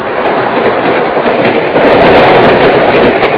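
A train rumbles steadily along the rails, a dense, continuous roar of wheels and carriage noise with a faint rhythmic clatter, loud and unbroken, growing slightly louder partway through; no one speaks.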